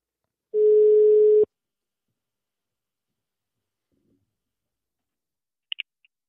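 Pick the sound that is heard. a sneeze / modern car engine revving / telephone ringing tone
telephone ringing tone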